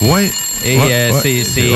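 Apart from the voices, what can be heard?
telephone ringing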